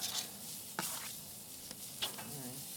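Poultry sizzling in a hot pan, a steady crackle with a few sharper pops and scraping stirs breaking through, and faint voices murmuring in the background.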